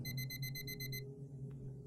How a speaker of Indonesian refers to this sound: Persis jam 2 dini hari, alarm kembali membangunkannya.